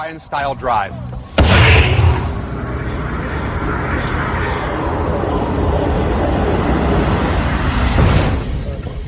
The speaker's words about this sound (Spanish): Nuestra simulación está preparada y lista para funcionar. Prenderemos las cargas de su interior, lanzaremos el bidón por los aires y compararemos esta explosión con la liberación de energía nuclear que se podría utilizar.